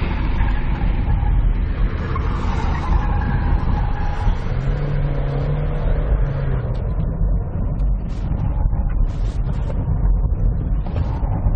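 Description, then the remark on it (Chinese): A Dongfeng Nissan Sunny, the only one of three cars without ESP, revs hard and steadily, its engine rising and falling in pitch as it weaves around cones on a small slalom test track, with faint tire noise and no voices. “接下来呢，要挑战这个小赛道的是东风日产的阳光。”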